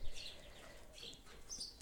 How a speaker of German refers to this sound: Oh, es zwitschern die Vögel im Hintergrund. Ich hoffe, das stört dich nicht. Ich sitze auf dem Balkon, es ist so schön.